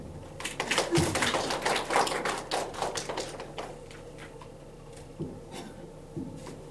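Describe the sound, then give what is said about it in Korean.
A church audience breaks into a burst of brisk, crackling applause that swells quickly, holds for a few seconds, then thins out into scattered claps and fades. “여러분 박수로 한번”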